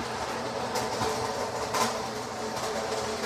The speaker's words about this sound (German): Jetzt muss ich mal den Hubwagen nach hinten fahren. Das könnte jetzt ein bisschen lauter werden.